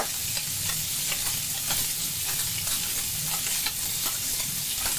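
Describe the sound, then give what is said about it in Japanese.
Steady, crackling sizzle of finely cut pancetta frying in a pan for gricia-style spaghetti, a dense hiss with scattered pops and light scraping stirs, continuous throughout with no talking. “男の料理音 グリチア風スパゲティ”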